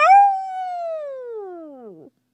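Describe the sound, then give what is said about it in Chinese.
A human voice imitating a monster's earth-shaking roar: one drawn-out, howling "aooo" that starts high and slides steadily downward in pitch for about two seconds before cutting off. “又是一声震天动地的吼叫，嗷！”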